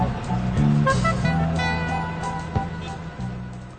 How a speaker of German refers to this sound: Alexanderplatz di Berlin. Sebuah bus berisi rombongan turis dari Moskwa berhenti di depan pintu utama Hotel Forum.